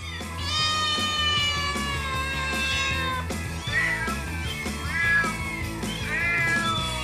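Many cats in an elderly woman's house meow loudly and almost continuously, their drawn-out, wavering cries overlapping one another, with no talking.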